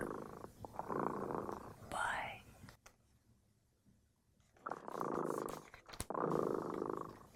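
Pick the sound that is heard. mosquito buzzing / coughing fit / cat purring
cat purring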